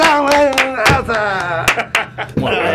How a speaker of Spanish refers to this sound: Yo es que los, aplausos que tengo yo por aquí son estos, ¿eh? pero es que no, valen estos. ¿eh? Es de agradecer en estos tiempos.